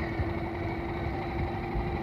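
A car engine, running after dust was shaken out of its carburetor, idles steadily in cold, windy weather: a continuous low rumble with a faint tonal hum and no breaks, running smoothly with no voices over it.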